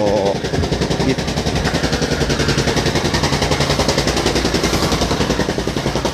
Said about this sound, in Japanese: すいません、今ちょっと聞こえますでしょうか、えー、ストリートではですね道路工事が行われておりまして、えー、その近くを近くに近づいて、そしてそこから遠ざかっていると、もしかしたら、えー、ドップラー効果が発生している可能性はありますね。